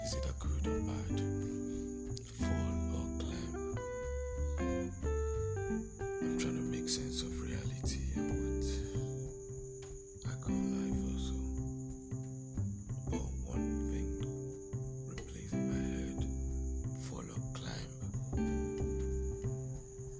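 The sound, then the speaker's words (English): Crickets chirp at night in a steady, unbroken high trill for the whole stretch, holding at an even level beneath soft, slow melodic notes playing in the foreground. “That's why I started off with wisdom, because I'm in a stage in my life as quiet as the whole surrounding me sound, and you can hear the cricket sound.”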